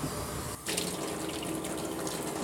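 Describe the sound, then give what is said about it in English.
Tap water runs steadily into a sink, a constant hissing splash with a brief break early on, as containers are rinsed out under the stream before being disposed of. No one speaks. “I have to mark them before I dispose of them to let them know that they've been rinsed.”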